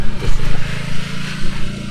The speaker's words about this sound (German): gut, Motorrad ist weg.